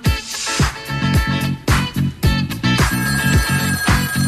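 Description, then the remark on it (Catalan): An old-style telephone bell rings repeatedly over a music track, its bright jangling bursts mixed with a steady, thumping bass beat and no voices. “I anem amb el so de trucada de telèfon, eh? aquell telèfon antic”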